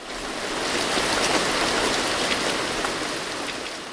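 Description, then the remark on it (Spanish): Heavy rain pours down on the Woodstock Festival in a steady, dense hiss, with scattered sharper drop impacts throughout. It is loud, swelling slightly in the middle, and no voices are heard. “Hay un momento en que llueve.”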